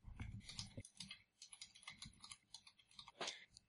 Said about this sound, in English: Typing. So, yep, yeah, typing, typing, typing.